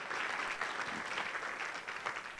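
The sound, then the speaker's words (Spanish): An audience applauds the word of God, bursting into sustained applause, a dense, steady wash of many hands clapping at once with no voices standing out, holding at an even loudness throughout. “Si vas a aplaudir la palabra de Dios, aplaudilo como él se merece tremendo.”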